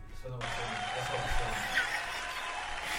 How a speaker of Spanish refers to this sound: Faltan los aplausos, muchachos.